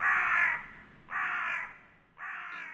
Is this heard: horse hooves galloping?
no